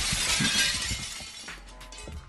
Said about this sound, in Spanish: La abuela de Percy salió con un bat de béisbol y le destrozó el auto. Destrozó todos los cristales del auto